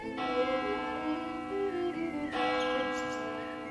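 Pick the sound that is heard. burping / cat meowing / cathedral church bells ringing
cathedral church bells ringing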